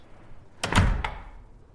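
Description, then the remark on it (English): A door swings shut with a quick rattle of the latch, a solid thud and a final click as a woman in a bowler hat walks out, followed by a faint low rumble fading into quiet. “Toot tips her bowler hat and is out the door.”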